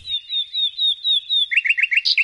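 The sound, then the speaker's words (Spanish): A male common nightingale sings, a run of repeated sweet whistled notes followed by a faster rhythmic series of rich, bubbling phrases, clear and loud with no voices. “Que es el canto de un macho de ruiseñor común.”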